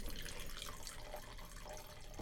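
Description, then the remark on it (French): Wine pours steadily into a glass for a tasting, a continuous splashing, gurgling trickle that holds an even level for a couple of seconds with no voices over it. “Alors, je te sers ça.”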